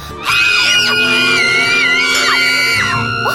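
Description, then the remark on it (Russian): Loud carnival crowd noise at the carnival in Mamoiada: many voices whooping, yelling and shouting together in a dense, continuous festive din that starts abruptly and never lets up. “Кажется, я слышу шум карнавала Сейчас будут танцы, веселье”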